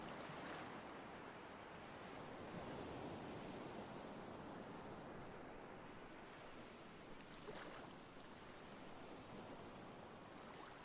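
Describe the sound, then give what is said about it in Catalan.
Steady ocean surf washes continuously against the shore, a dense, hissing roar with a slightly stronger wave surging in near the end; no voices are heard. “De tant en tant apareix alguna onada que et mulla els peus sense el contacte fresc de l'aigua i observes com l'aigua s'esmuny entre els dits dels teus peus.”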